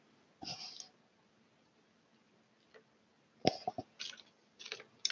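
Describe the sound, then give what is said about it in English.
Someone gulps down a drink: a wet swallow, a pause, then a quick run of three or four more gulps with small clicks and breaths, and no talking. “They were gulps, but they are what they are.”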